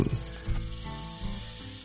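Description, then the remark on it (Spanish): A rattlesnake's rattle buzzes in a steady, dry, hissing drone that holds at a moderate level for about two seconds, with a faint low hum underneath. “Nos referimos a las serpientes de cascabel.”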